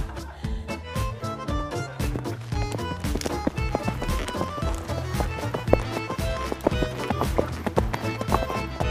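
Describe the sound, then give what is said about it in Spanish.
Rapid, steady clip-clop of a female dromedary's hooves as it is ridden by a woman on its back, the sharp hoofbeats repeating rhythmically over a dense, tonal musical backdrop. “¿Qué es ese sonido? Hostia, es Mary Mercy, va montada encima de su hija la dromedaria.”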